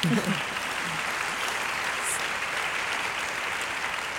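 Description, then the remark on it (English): Steady audience applause, a dense wash of many hands clapping at an even, sustained level for several seconds, with a brief low vocal murmur at the very start. “I'd clap for that.”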